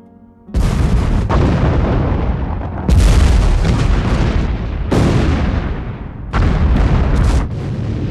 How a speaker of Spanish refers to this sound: Nos atacan con su arma principal. ¡Cuidado! ¡Protéjanse! los enemigos lanzan un misil, causando diferentes explosiones.